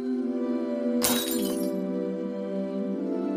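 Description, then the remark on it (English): A glass jar, tossed behind her by a woman, smashes once in a sharp, bright crash that quickly scatters into tinkling shards, heard over a steady, low humming drone that continues after the break. “She tossed the jar behind her. The sound of it smashing came seconds later.”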